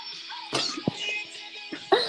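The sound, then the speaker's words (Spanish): A shrill scream bursts out of a song in short, sharp yelps over a steady high-pitched musical backing, with the loudest cry arriving right at the end. “Cuando escuché este grito que viene ahora por primera vez, me desmayé.”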